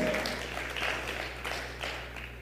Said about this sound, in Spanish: Dele palmas al Señor de la Gloria.